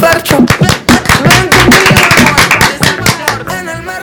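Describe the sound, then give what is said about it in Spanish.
An audience breaks into loud, steady applause to welcome a speaker who is about to talk about karate, many hands clapping in a dense, rapid patter that carries on for several seconds with a few voices mixed in. “Un fuerte aplauso.”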